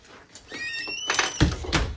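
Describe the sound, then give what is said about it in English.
A door creaks on its hinges with a rising squeal, then shuts with a heavy thud and a second, softer knock, with no one talking. “Close my damn door.”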